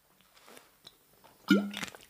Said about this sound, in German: Ah, kurz einen Schluck Wasser genommen.